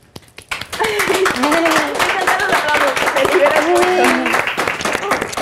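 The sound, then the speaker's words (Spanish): A small group claps steadily for about five seconds, a dense patter of quick, crisp claps that starts abruptly and holds a fairly even loudness, with voices talking and calling out over it. “Aplausitos, aplausitos.”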